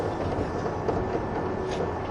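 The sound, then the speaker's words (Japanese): A 185 series limited express train, the Odoriko No. 106 bound for Tokyo, running. A steady dense rumble with a hissy wash on top holds an even loudness throughout, without distinct wheel clicks or voices. “この電車は特急踊り子106号東京”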